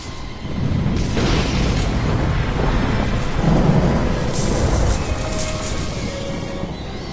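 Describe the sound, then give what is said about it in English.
A loud, sustained roll of thunder rumbles for several seconds, with a sharp crackling burst partway through and a lingering low rumble as it fades. No one speaks. “Do you know what happens to a toad when it's struck by lightning?”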